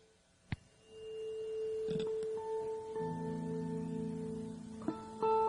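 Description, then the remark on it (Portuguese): A steady, sustained pure tone hums at a constant pitch throughout, joined later by other held tones and a brief click, with no talking. “Agora, vamos uh, pegar um, vai usar esse frequência, essa frequência.”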